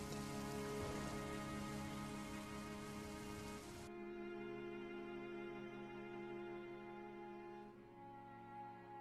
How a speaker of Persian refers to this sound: به در حیات نرسیده بارون هندی شروع شد به ثانیه نکشیده عین موش آب کشیده شده